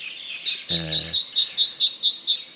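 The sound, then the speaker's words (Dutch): Wetland birds calling, with white-tailed eagles giving a steady series of about nine high, yelping calls, evenly spaced, along with three to five cuckoos, and a brief low, droning sound early on. “wij zitten nu toch nog maar eventjes met roepende zeearenden voor ons. drie, vier, vijf koekoeken.”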